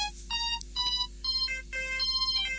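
A mobile phone ringtone for an incoming call plays a repeating bright electronic melody in short bursts, clear, with no one speaking over it.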